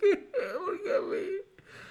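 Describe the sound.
A voice imitates someone whimpering and crying while playing a video game, with wavering, sobbing vocal tones that rise and fall over a couple of seconds, fairly loud, followed by a brief pause and a softer breathy sound.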